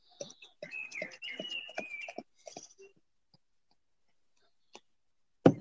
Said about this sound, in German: Also, Weißbier einschenken ging, ging immer noch.